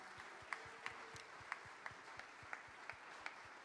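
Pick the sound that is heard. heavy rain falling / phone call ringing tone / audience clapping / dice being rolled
audience clapping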